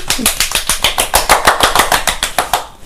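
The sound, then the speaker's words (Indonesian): A brisk burst of applause welcoming a guest, the owner of Insight 1603: sharp claps landing in a fast, steady rhythm for about three seconds before tapering off slightly at the end, with no talking over it. “yuk langsung kita panggil saja ini dia owner dari Insight 1603 yuk tepuk tangan yeay”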